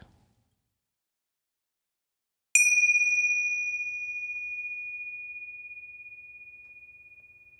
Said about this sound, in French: Alors écoutons ensemble le son de cette cloche.